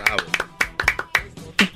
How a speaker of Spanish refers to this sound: Bravo, un aplauso para esta mujer.